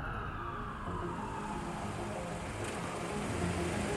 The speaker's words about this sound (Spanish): A la distancia, se oyen sirenas de policía.